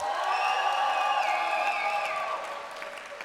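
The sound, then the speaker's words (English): A large church audience from the 11 o'clock service claps and cheers loudly, with sustained whoops and shouts riding over dense applause that eases off slightly toward the end. “Give it up if you're normally in the 11 o'clock service.”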